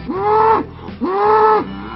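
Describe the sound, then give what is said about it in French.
Two long, loud moos from Texas Longhorn cattle in a herd of 50 raised on 70 hectares at Texas sur Vidourle, by the only Texas Longhorn breeders in Europe. Each is a sustained low bellow lasting over half a second, separated by a brief pause, with no voices present. “À la tête de ce troupeau de 50 bêtes qu'ils élèvent sur 70 hectares, Stéphane et son épouse Oriane.”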